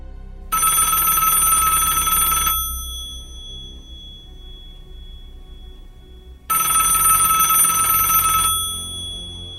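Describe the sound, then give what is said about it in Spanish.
A mobile phone that was said not to work rings in two bright, trilling bursts about two seconds long, separated by a pause of several seconds. The ring is loud, with no voices. “Y ese celular que no servía empezó a sonar.”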